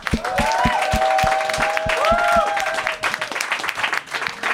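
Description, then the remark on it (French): An audience applauds loudly and steadily for two guests being introduced on stage, dense clapping with a few whistles or cheers rising above it before the clapping thins out near the end. “donnez une bonne main d'applaudissement pour Kyron et Paul Taylor”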